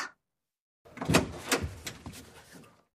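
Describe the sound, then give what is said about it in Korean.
A bathroom door is slammed shut: a quick series of sharp wooden knocks and rattles over about two seconds, moderately loud, then silence. No voices. “쾅! 화장실 문은 가차없이 닫혔다.”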